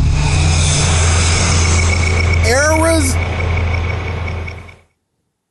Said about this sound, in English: that was a long tail at the end of that. That was a lot of drone. Yeah, it was. My goodness, trim that up a little bit.